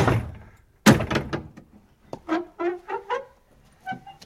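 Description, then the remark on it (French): A door opens with a heavy thud of the latch and bolt, followed by a series of drawn-out creaking hinge squeals as it swings, with no voices present. “Il ouvre les portes.”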